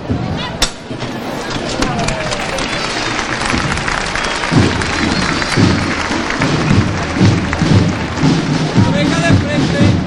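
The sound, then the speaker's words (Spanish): A sharp thud right at the start as women costaleras lift the paso de palio of María Santísima del Mayor Dolor, then steady, dense applause from a crowd that carries on throughout, with murmuring voices and low rumbling pulses mixed in during the second half. “Bueno, pues levantar el cielo del paso de palio de María Santísima del Mayor Dolor recordamos, portado por eh, mujeres costaleras, pasó íntegramente portado por mujeres, que fue de hecho el primero que incorporó a la mujer costalera.”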